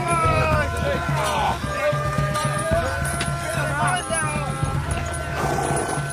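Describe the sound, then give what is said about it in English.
Horses' hooves clop steadily as the horses are driven onward amid a busy, noisy scene, with a murmur of voices and sustained tones running underneath throughout. “Keep it moving! Keep them going! Get those horses moving!”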